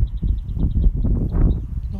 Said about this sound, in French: des oiseaux de partout, quoi. Et d'en voir partout, mais plein des différents. Ça, c'est hyper chouette, quoi.